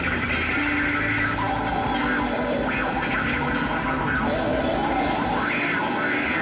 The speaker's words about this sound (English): hissing and snarling. The whip of that wah wah pedal just making a mash out of your mind.